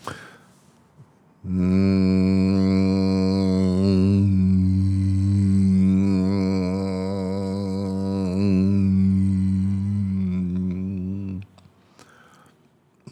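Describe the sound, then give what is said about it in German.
A single sustained sung tone on a steady low pitch holds for about ten seconds while the tongue reshapes the mouth space, slowly shifting its color from a dark, throaty sound to a brighter, more nasal, buzzing timbre. “Mit der Zunge verändern wir den Mundraum und damit den Klang unseres Tones von halsig und dumpf bis zu nasig und grell.”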